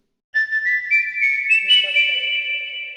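Someone whistles a melody, clear and close, the bright tone stepping between notes in a steady flowing line, with a soft lower accompaniment entering partway through.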